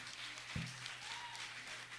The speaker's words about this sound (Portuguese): Nós vamos fazer a nossa saideira, mas eu queria já pedir aqui uma salva de palmas também aqui para nosso bando, nosso conjunto.